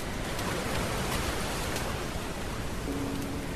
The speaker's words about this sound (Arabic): ولأن الحلقة بها قليلا من الضعف في جودة التسجيل سنضيف بعض التأثيرات التي تساعد في أن تكون الحلقة جميلة صوت الشاطئ